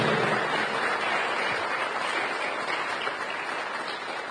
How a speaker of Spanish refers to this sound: ¿Cuántos pueden darle un aplauso al Señor por eso? Declarémoslo.